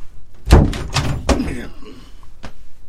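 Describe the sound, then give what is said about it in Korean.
A grandfather's bedroom door bursts open with a cluster of loud, heavy thumps and rattles in quick succession, followed a moment later by one more sharp knock. “벌컥 할아버지 방문이 열리더니 망치를 머리 위로 치켜든 할아버지가 내 방을 향해 달려가셨다.”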